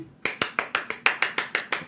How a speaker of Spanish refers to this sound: Sonidos de cohetes ahí y aplausos.